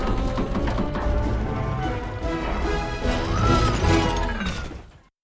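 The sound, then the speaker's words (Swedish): Loud, busy orchestral film music with plucked pizzicato strings bouncing in a quick rhythmic pattern beneath fuller instruments, cutting off abruptly at the end. “Där hör man, här har vi pizzicato som det heter ja. i stråkarna.”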